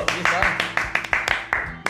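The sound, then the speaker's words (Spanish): A single person claps steadily while another introduces a performer, about ten sharp, bright claps in under two seconds, with voices talking faintly underneath. “preséntalo, porque yo le aplaudo y tú presentas”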